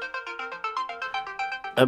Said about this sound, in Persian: بذار جواب این تلفن رو بدم بعد